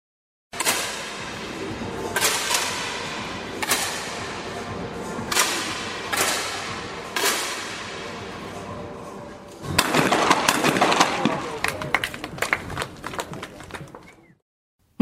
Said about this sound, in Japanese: え続いてはですね、クレー射撃のスキートの時の音です。もう一度お聞きいただきます。